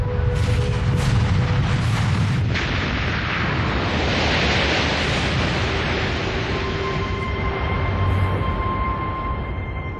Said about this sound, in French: Au bout de trois semaines, les flammes et la lave cessent de jaillir. Et peu après, une gigantesque explosion survient.